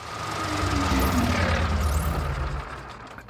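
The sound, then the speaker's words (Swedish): A voice imitates a tractor engine sputtering and stalling as it runs out of fuel: a rough, rumbling chug that holds steady for a few seconds, then fades and dies away. “Och då är det lite som att bränslet tar slut i en traktor. Du vet, det låter ju så här.”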